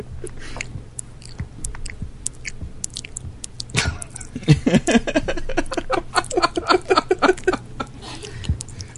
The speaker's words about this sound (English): You guys want to hear some mac and cheese? Here's some mac and cheese.